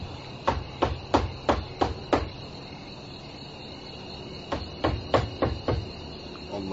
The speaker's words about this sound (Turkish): Çal bakalım kapıyı